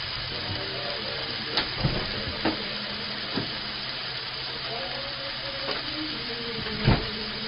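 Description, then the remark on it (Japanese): Pork sizzles steadily in a hot pan, a dense crackle throughout, with a few sharp scrapes and taps of a utensil as yuzu ponzu sauce is added and stirred after the pork is cooked through and the heat is lowered. No one speaks. “最終的な味付けは今日はポン酢にしますはい、えーと、豚肉に全部火が通ってきたそこでポン酢をちょっと火を弱めて”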